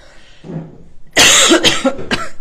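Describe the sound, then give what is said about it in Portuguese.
A loud fit of harsh coughing, several rapid bursts in a row after a brief breathy lead-in, with no speech over it. “Opa! Que tosse, peraí.”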